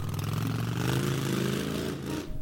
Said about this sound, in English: So he grabbed his keys, hopped on his motorcycle